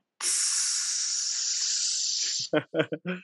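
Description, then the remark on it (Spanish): A voice imitates the fizz of a blue glass Coca-Cola bottle being opened and poured into a glass with ice, a steady bright hiss lasting about two seconds, followed by a few short voiced syllables in quick succession. “O si ves el puro comercial donde ves que abren la coca de vidrio, de ese vidrio azulito, y lo ponen en un vaso con hielitos, donde escurre la gotita, y, escuchas hasta el...”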